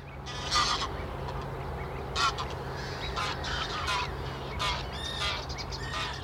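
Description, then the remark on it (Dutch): A chorus of birds calls across a young reed marsh along the Linge in Park Lingenzegen, between Elst and Bemmel, with repeated harsh honking and cackling notes like geese or ducks, over a steady low background hum. “Door al die geluiden denk ik, het is zonde om nu te gaan praten. Al die vogels die je hoort.”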